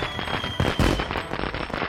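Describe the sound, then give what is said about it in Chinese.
Firecrackers and fireworks going off in the distance at dusk on Chinese New Year's Eve, a dense, continuous crackle of rapid overlapping pops and bangs with a few stronger bursts, steady throughout and with no voices. “远远传来阵阵放爆竹和烟花的声音”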